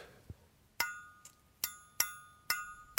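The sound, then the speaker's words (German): A finger flicks against a gold flute about five times in an uneven rhythm, each sharp tap leaving a brief, fairly high metallic ring that fades quickly, with a couple of fainter taps between. “Diesen Unterschied zwischen Gold, hell und Silber, dunkler, hört man sogar, wenn man nur mit dem Finger gegen die Flöte schnippt.”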